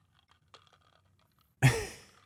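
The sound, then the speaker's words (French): Someone takes a sip of a drink: faint mouth clicks and swallowing sounds, then a sudden loud, breathy exhale that trails off. No one speaks. “On prend une gorgée pour tous ceux qui ont été dans des relations toxiques avant.”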